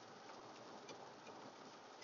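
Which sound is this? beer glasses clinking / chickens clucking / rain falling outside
rain falling outside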